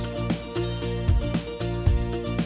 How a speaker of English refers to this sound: You will know when to start listening when you hear the chimes ring like this.